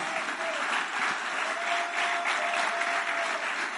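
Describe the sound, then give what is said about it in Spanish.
An audience applauds steadily, a dense, even wash of clapping hands that holds at a constant loudness for several seconds without letting up, with a faint sustained tone running beneath it. “Si usted es un servidor de Cristo, denle un aplauso, pero merecedor al que vive.”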